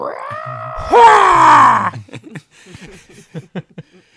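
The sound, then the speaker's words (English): A loud, strained battle yell from someone fighting with a lightsaber rises in pitch and holds for about two seconds, then trails into a few short, softer breathy grunts and vocal fragments. “He's he's fighting with a lightsaber. So the yell”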